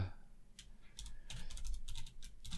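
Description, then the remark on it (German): Rapid, uneven clicking of keys on a computer keyboard as a person types, fairly quiet, with bursts of several keystrokes in quick succession and no voices. “hat gerade getippt”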